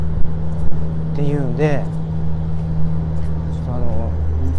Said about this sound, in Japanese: 貨物船っていうんですかねがもう通ってるんでものすごいこう貨物船の音が入ってきてると思うんですけど大変お聞き苦しいお聞き苦しいところちょっとご了承いただきたいなと思います